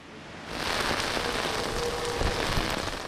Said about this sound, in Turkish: Kentte etkili olan yağmur ve doluyla da yollar suyla doldu.